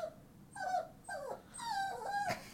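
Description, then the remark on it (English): A puppy whines and growls in three short, rising and falling bursts, moderately loud, with no one talking over it. “The puppy has something to say about that.”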